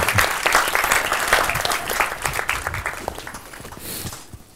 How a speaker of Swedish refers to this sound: Välkommen! Tack. En applåd!